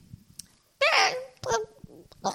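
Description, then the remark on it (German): A baby babbles in three short, high-pitched bursts of wordless vocal sounds, the first drawn out and squealing, with quieter breathy pauses between them, clear. “Ähm, hören Sie das? Hören Sie das? Es kann noch nicht mal richtig reden.”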